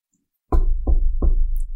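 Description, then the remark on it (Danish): Three firm knocks on a door, evenly spaced, each with a deep, hollow thud that rings out briefly after a moment of silence; a father knocking on his teenage son's door. “så er der nogen, der banker på.”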